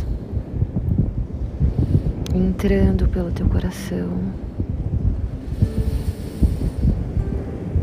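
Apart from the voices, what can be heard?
wind and ocean waves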